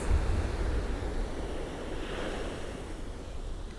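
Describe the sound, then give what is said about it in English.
Sea waves wash continuously onto a shingle beach, a steady roar of surf with low wind rumble buffeting underneath and no voices; after recent days of rain the sea is churned up and not clear. “We've had rain the past couple days, and I think it's churned up some stuff from the bottom. So the sea is kind of, it's not murky, but it's not clear, crystal clear like it is sometimes.”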